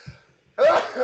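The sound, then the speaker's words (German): A single loud sneeze bursts out suddenly after a brief near-silence, with a sharp breathy blast that lingers for about half a second. “Gesundheit.”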